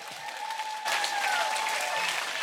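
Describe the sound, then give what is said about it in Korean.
An audience claps together in a dense, steady wash of applause that swells and grows louder partway through, with a faint sustained tone ringing underneath and no one speaking. “이렇게 또 박수만 치고 또 돌아갈 땐 다른 얼굴 하고 가면 안 돼.”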